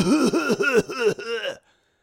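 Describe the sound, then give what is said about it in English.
A man mimics coughing with his voice, making about five quick, throaty, voiced bursts in a row, fairly loud, then stopping abruptly, imitating a man who coughs at people on purpose after being asked to back up or put on a mask. “And he starts coughing at us when we say, "Hey man, listen, you need to back up and uh, or put on a mask."”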